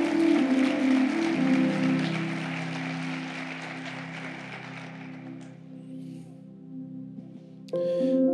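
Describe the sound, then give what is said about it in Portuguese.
A church audience applauds the Lord in a dense wash of clapping over sustained organ-like chords. The clapping thins out and fades after about five seconds, leaving the held tones. “Aplauda o Senhor, por favor.”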